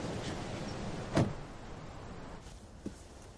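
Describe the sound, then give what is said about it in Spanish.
A muffled thump, like a car door shutting as Marnie gets into her car, stands out against a steady low background hum, followed a moment later by a faint, brief click. No one speaks. “Marnie camina hacia su coche.”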